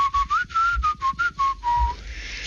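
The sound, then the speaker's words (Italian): A person whistles a short, clear family call signal: about seven quick, steady notes rising and falling slightly, ending on a longer lower note, with no talking. “Facevo dieci passi e scattava il fischio di, di famiglia.”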